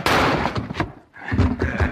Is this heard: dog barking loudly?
no